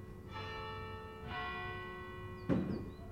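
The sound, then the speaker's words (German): A church bell tolls slowly, three resonant strikes with long ringing overtones that overlap and fade, the last strike sharper and louder, with no voices present. “Ich lade zur Kirchenglocke für sie läuten.”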